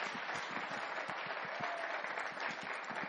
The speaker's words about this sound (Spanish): Un aplauso para él. Primera vez que nos acompaña.